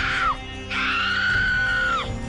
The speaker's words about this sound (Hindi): नयनतारा बौखला गई वो वो चीख रही थी